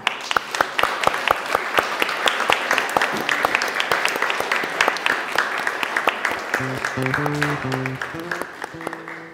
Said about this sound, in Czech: tak ať Pán Bůh vám bohatě žehná a my ostatní můžeme zatleskat, si myslím, že jo.